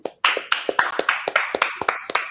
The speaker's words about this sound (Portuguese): Uma salva de palmas, né?